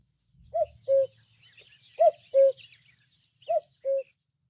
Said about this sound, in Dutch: Dat is de koekoek, of niet? Dat is de koekoek.